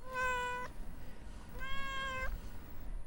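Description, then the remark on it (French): A grey cat meows twice at a country house, each call drawn out and tonal with a bending pitch at the end, separated by a short pause over a low, steady background rumble. “Et en fait, euh, il y avait un en fait, y avait un chat qui était gris.”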